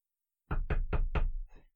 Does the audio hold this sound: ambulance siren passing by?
no